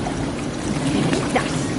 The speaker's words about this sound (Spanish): Aquí convertimos el oro fundido en granalla.